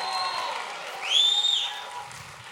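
A church audience claps steadily and shouts praise to Jesus in a dense wash of applause, with a high shout or whoop rising above the crowd midway through before the noise settles back.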